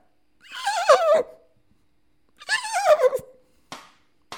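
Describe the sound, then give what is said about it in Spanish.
A person imitates a horse's whinny twice, each a loud, quavering, descending neigh lasting about a second, followed by two short, sharp breathy snorts. “Esta semana aprendí a imitar caballos. Escucha.”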